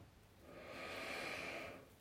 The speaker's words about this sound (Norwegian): Ta et dypt pust.